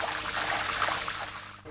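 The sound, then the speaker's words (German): Water used to wash soybeans draining steadily from a tub after the compressed air is switched off, a continuous rushing and gurgling flow with no talking, easing off slightly right at the end. “Dann wird die Druckluft abgestellt und das Waschwasser wird abgelassen.”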